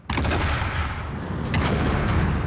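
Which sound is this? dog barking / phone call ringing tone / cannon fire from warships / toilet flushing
cannon fire from warships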